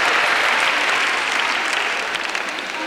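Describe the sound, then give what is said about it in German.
A crowd claps steadily for the Heidelberg women who will prepare the 1995 spring meeting, a dense, even wash of many hands applauding at a fairly loud level throughout, with no voices standing out. “Ja, der Applaus geht immer noch allen Heidelbergerinnen, die 1995 das letzten Frühlingstreffen vorbereiten werden.”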